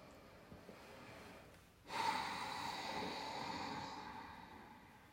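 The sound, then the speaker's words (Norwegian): A single long, audible breath drawn in through the nose during a guided breathing exercise, with sound deliberately added to the breath. It is fairly loud, starts abruptly after a quiet moment and continues as a steady airy rush before slowly fading. “Du kan sette litt mer lyd på pusten hvis du syns det er vanskelig å holde fokuset der.”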